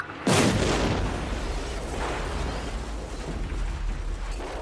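A car explosion at night: one sudden, loud blast erupts and then gives way to a sustained, rumbling roar with crackling debris that slowly settles. No one speaks.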